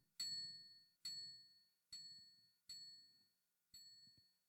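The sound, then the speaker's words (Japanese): A small presentation timer bell dings five times at slightly uneven intervals, each bright, ringing strike fading quickly and sounding rather quiet and clipped as a microphone expander gate is raised, with nothing else audible between the dings. “このプレゼンのタイマーのチンチンっていうとですね、はい、これ結構ある程度、あのね、音がするので、かなり聞こえているかと思うんですけども、これをですね、えー、エクスパンダーゲートを、あのー、高くしていくとですね、聞こえなくなっちゃうんですよ。”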